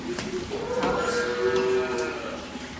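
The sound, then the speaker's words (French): A cow lets out a long, drawn-out moo, another lowing faintly alongside, in a milking parlour with two rows of five stations where ten cows are milked at once, over a steady indoor background hum with a few sharp clicks of the milking machinery. “2 fois 5 postes, ça fait 10 vaches en même temps qui peuvent être traites.”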